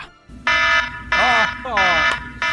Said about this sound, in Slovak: Naozaj, bol som vystresovaný, naháňali ma tam vojaci, ja som mal za úlohu zachrániť moju rodinu a, a pomaly to prechádzalo, pretože 4.35 prišiel budík číslo 2.